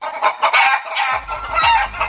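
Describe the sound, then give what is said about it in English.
Several chickens cluck busily while a rooster crows over them, the squawks overlapping in a dense, continuous barnyard racket with no talking. “A backyard chicken ordinance in Waukesha has some feathers ruffled.”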